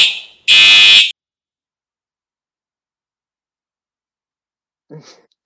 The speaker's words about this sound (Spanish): Bueno, aquí nos saludo la alarma de nuevo. Eso es maravilloso.